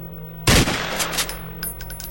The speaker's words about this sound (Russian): Мгновение спустя первый мужчина нажал на спусковой крючок и раздался оглушительный выстрел